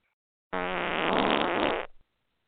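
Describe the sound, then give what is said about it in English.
A loud, brassy fart sound effect, played when a caller does not respond, blares for about a second and a half, rich and buzzy with a wobbling tone, then sputters out abruptly. No voices accompany it. “So please don't gas up the place.”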